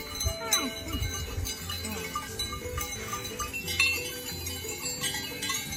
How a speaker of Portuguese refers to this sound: Na encosta do Monte Vaza, a uma altitude de quase mil metros, o cenário é pouco habitual. Pelos prados vêem centenas de cabras a pastar alegremente.